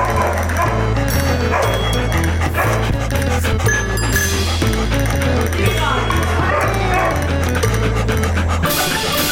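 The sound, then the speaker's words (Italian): A dog named Pablito barks and yips in short bursts over loud continuous music with a heavy, pulsing bass line. “Col nostro Pablito nel sottofondo rientriamo”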